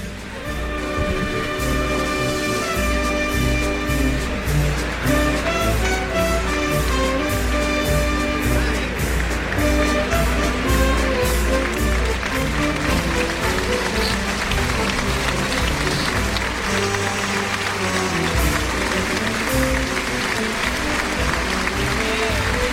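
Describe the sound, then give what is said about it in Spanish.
A strong, sustained ovation for bullfighter Daniel Luque as he finishes his lap of honour in the bullring: loud crowd applause and cheering that holds steady throughout, with the dense clapping forming a continuous roar over some musical tones. “Fuerte ovación la que se está llevando Daniel Luque.”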